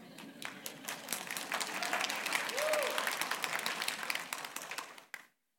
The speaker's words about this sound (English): we'll be married 13 years tomorrow, and she deserves an applause for that.